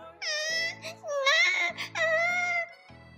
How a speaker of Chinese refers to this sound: 小熊哥哥和小熊妹妹都吓坏了，蜂蜜熊宝宝吓得哇哇大哭。